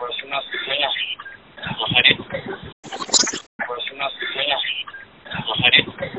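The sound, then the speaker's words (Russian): Muffled, narrowband voices come through a phone line as a young woman answers a call, with crackly walkie-talkie style radio chatter in the background behind her and a short, brighter burst of sound midway. “но на фоне у девушки слышны звуки рации, из-за чего в конце разговора она и поспешила бросить трубку.”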